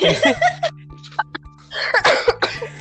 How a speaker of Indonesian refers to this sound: Batuk terus. Batuk terus. Buset, buset tolong uh, obat batuk sponsori kami karena kita punya model batuknya di sini bisa berbaik gaya dari episode satu dari episode satu sampai sekarang masih batuk terus